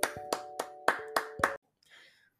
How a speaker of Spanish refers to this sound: El día de hoy tenemos un invitado muy especial, pero antes un fuerte aplauso.